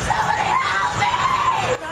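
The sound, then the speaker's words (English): A woman screams for help from a van parked on a dark street in Los Angeles, a loud, sustained, high-pitched cry of distress that holds steady for nearly two seconds, strained, then briefly breaks off at the end. “A blood curdling scream coming from a van parked on a dark street.”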